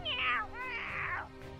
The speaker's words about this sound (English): But then, even as he says this, his dying breaths are cut off, cut off by Mist Cat, who suddenly and it's met by a cacophony of other cat sounds